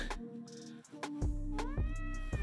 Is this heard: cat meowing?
yes